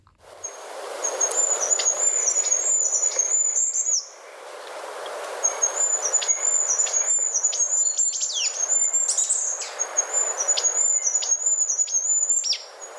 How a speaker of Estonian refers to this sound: pöialpoisil on komme oma lauluga alustada kusagil tund-pool enne päikesetõusu ja lõpetada tükk aega enne päikese loojumist